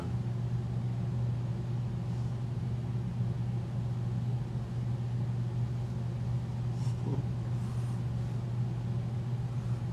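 An evaporative air cooler runs steadily, giving a constant low motor hum layered with a broad whooshing fan noise. The drone never changes in level across the whole stretch, and no one speaks.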